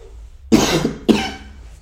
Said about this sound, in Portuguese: Peço desde já pelos possíveis ataques de tosse que terei ao longo deste áudio digital